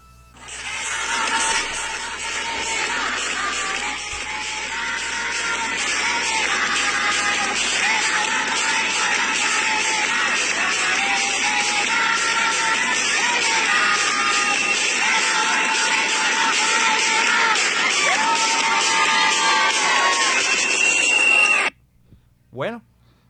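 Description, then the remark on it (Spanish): A large crowd of women in front of Colombia's Constitutional Court cheers and shouts as legal abortion is approved, a dense roar of high voices with overlapping screams and yells that holds steady for about twenty seconds before cutting off abruptly. “Entonces escuchemos cómo fue la reacción de las mujeres que estaban frente a la Corte Constitucional cuando se aprobó el aborto legal en Colombia.”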